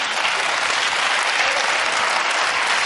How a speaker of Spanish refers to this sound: ¿Esos aplausos que son con ironía o.?